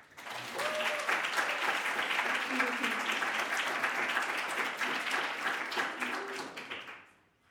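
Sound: audience applause and cheering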